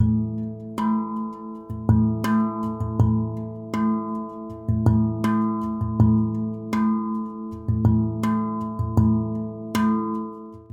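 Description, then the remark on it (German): The very first recorded musical phrase plays back with no talking: sustained harmonic low tones under repeated bright, percussive note attacks in a steady, loping rhythm, moderately loud throughout. “Ja, und dann hören wir doch mal in die allererste aufgenommene Phrase rein.”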